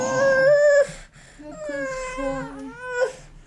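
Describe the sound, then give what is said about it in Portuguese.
A sleepy baby whimpers: a louder, high-pitched whine at the start, then softer wavering whines that swell briefly again near the end, with no talking. “Desculpem lá que estas interrupções, mas esta esta minha criança está cheia de sono.”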